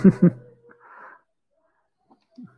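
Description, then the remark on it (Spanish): A child cries out in a couple of short, strained wails, followed by a thinner drawn-out whine and a breathy sob that fade into quiet, with a faint whimper near the end. “Hay un niño llorando. Por favor, atiendan a sus hijos.”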